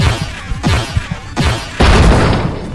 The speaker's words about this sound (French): J'ai pointé mon arme vers la porte et j'ai tiré.